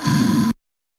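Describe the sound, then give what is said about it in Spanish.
A single loud snore from a sleeping motorcycle owner: a rough, throaty rumble lasting about half a second, then cut off abruptly into silence. “Y si está asegurada con línea directa, su dueño duerme así.”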